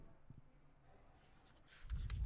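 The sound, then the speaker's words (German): Soft paper rustling as pages of a paper calendar are turned, quiet at first and then a few brief, slightly louder crinkling flips near the end, with no talking. “Hörst du das Blättern? Ich höre es.”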